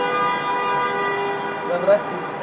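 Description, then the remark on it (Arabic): A car horn blares outside in one long, steady honk that holds for a couple of seconds over a faint background. “هو ده بيضرب كلاكس ولا بيشتم؟”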